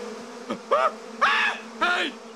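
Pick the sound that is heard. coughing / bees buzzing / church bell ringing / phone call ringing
bees buzzing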